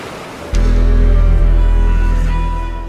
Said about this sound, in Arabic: وعندما نسمع صوت الماء والامواج ياخذك احساس الى عالم اخر هو عالم البحار والمحيطات لنستمع سويا الى صوت البحر